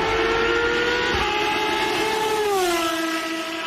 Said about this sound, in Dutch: Dan op het tt weer in Assen was Formule 1 geluid. Oud, historisch Formule 1 geluid te horen.